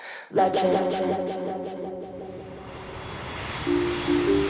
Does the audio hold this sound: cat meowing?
no